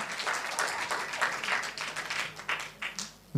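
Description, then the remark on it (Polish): An audience applauds steadily to congratulate a man on the birth of his third son, a dense patter of many hands clapping with a few sharper individual claps standing out, holding fairly even loudness throughout with no talking. “Dzisiaj tobie, bo za tydzień będziemy Magdzie bić, bo to właściwie większe brawa dla niej.”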